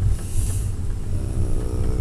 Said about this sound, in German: Grüße aus äh, einem Großbus aus Peru, Santa Teresa, nahe Machu Picchu. Seit sieben Stunden fahren wir mit äh, außergewöhnlichen Einblicken über die Fahrkünste peruanischer Busfahrer